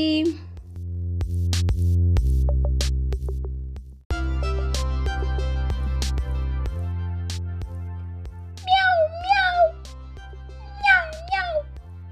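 A cheerful Tamil-language children's song about a kitten going around the house plays with steady, bouncy instrumental backing. Toward the end, two clear, loud meows rise and fall over the music.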